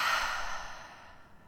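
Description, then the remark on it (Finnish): A single deep, airy exhale through the mouth after breathing in through the nose, during a walk, fairly soft, starting full and gradually fading over a second and a half, with no talking. “Aloitetaan taas sillä, että hengitä syvään sisään nenän kautta ja suun kautta ulos.”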